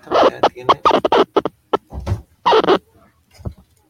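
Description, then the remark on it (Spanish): Choppy scratching sounds in a quick series of loud, short bursts with a warbling, shifting pitch, separated by brief gaps and trailing off into a few fainter blips. “¿Sonó así como un scratch?”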